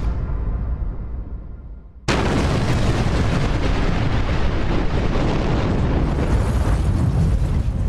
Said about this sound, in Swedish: Och sen drar han den där, den bomben.